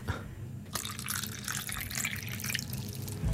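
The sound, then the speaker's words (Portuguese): Water drips and splashes near the microphone, a dense, crackly patter of droplets that starts abruptly and continues steadily; no one speaks. “Água, água.”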